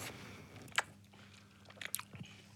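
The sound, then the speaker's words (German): A wet crunch of someone biting with relish into a juicy watermelon, followed by a few smaller slurping and chewing sounds, with no talking. “Ja, dass also man, wenn man wirklich mit wirklich mit Genuss, mit Genuss in so eine richtig schöne Wassermelone reinbeißt.”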